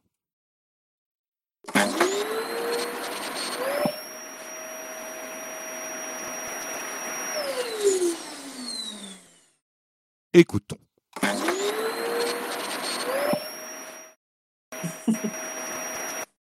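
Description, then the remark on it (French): An old vintage vacuum cleaner being recorded at home starts up with a rising whine and runs with a steady, loud hum before spinning down, then is switched on again twice. A brief laugh is heard between runs. “vous allez maintenant enregistrer votre aspirateur”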